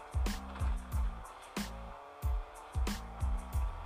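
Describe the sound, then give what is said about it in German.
A video game car engine revs in quick repeated bursts, each one dropping in pitch like rapid gear shifts, loud with a steady rhythm and no talking. “Komm, fahr Auto.”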